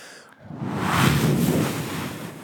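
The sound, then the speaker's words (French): A voice imitates an ocean wave with a breathy, rushing whoosh that swells to a peak near the middle and slowly recedes, with no words spoken. “Il m'a bah. dit La vague. Vous voyez la vague”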